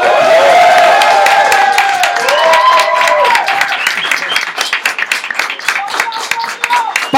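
A live show audience cheers and whoops loudly to show approval for a performer, while steady clapping builds into dense applause, the shouts fading as the clapping continues throughout.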